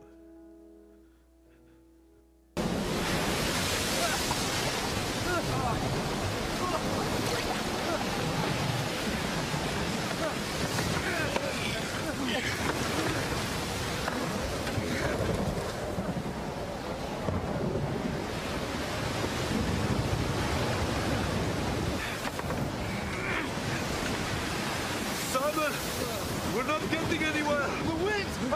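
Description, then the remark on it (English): Loud, churning sea waves crash continuously with gusting wind roaring over them in a storm around a rowing boat at night, a dense stormy wash of noise that starts abruptly after a brief quiet moment and persists throughout. “But the storm wasn't over yet.”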